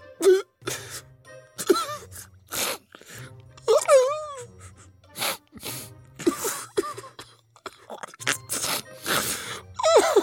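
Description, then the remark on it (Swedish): A voice performs exaggerated crying: wavering, rising-and-falling wails broken by sharp, breathy sobs and gasps in an irregular rhythm, with no actual words spoken. “Hon föll ut i gråt.”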